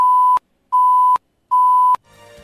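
Three loud, steady electronic warning beeps of equal length, evenly spaced with short silences between, signalling 10 seconds left in a candidate's 10-minute block of a live radio interview, followed by a brief burst of faint background noise.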